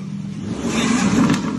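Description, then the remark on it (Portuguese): A car engine revs, its low throaty roar climbing and swelling over a second or so before easing slightly, loud and steady with no voices. “Dá, dá uma pisada aí pra gente ouvir, mano.”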